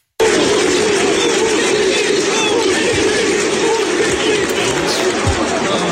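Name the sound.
football stadium crowd chanting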